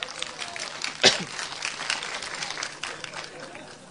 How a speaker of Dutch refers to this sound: Even applaus voor mijn vader. en applaus voor mijn vader.